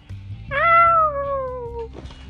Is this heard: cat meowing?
yes